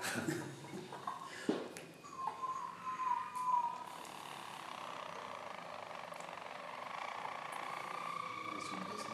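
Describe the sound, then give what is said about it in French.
Three of four Harz canaries sing with closed beaks, a soft, continuous rolling trill with sustained, hum-like, cavernous tones that swell in after a couple of seconds and carry steadily to the end. “Là, on dirait que trois se mettent à chanter.”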